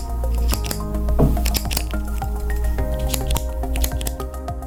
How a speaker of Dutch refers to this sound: Ah, zo'n pen ding. Een pen, ja.